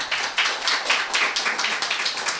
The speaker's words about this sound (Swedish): Ytterligare en applåd för eh, tack så mycket, tack.